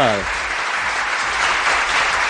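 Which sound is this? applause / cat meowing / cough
applause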